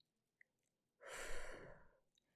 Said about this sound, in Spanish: Te sentás en el piso y te cruzas de piernas. Cerrás los ojitos y respirás despacito. Adentro entra el aire, por la nariz lo tenés que sentir.